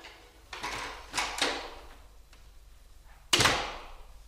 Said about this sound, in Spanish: Tampoco advirtió nada extraño en los primeros segundos cuando abrió con el llavín la puerta de su casa.